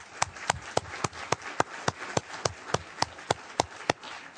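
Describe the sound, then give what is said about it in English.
Applause for a string quartet of viola, two violins and cello, with a steady, even rhythm: about sixteen sharp, crisp claps about a quarter-second apart over a low background hiss. No one speaks. “Please give them all another round of applause.”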